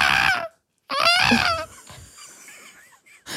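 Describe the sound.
A person imitates a seagull with two loud, shrill squawking calls, each sliding downward in pitch, followed by quieter breathy sounds and a brief noise at the end.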